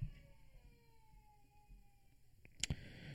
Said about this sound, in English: Oh my goodness, there is a loud baby in the other room.